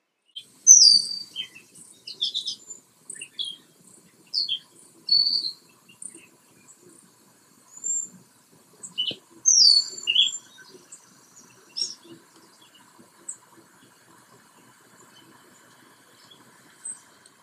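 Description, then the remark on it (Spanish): Birds sing outdoors in short, bright chirping phrases that come and go irregularly, over a faint steady buzz of insects in the background, with no one speaking. “Y si te preguntas por qué este capítulo no tiene música de fondo, es porque te quiero regalar unos segundos del cantar de los pájaros en este preciso momento.”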